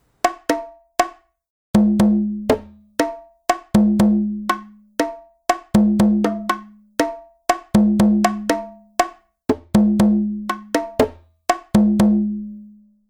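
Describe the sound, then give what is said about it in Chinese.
Bongo drums played alone in a quick, syncopated pattern of sharp, ringing slaps, alternating bright high-pitched hits with deeper resonant tones that sustain briefly. “好，这个就是呃邦狗的声音。”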